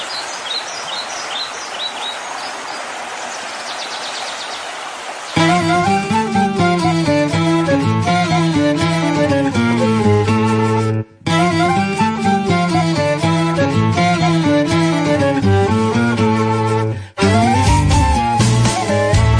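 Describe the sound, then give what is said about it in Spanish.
Birds chirp over a soft, steady wash for a few seconds, then a traditional Spanish folk song from the Tajo river basin bursts in loudly with rich sustained notes and a steady beat, pausing briefly twice. “recolectores de, toda esa riqueza cultural, de toda esa riqueza musical que en este último trabajo discográfico en …, canciones tradicionales de la cuenca, del Tajo, suena así.”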